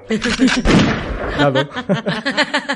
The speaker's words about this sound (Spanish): Ahí lo tiene el disparo.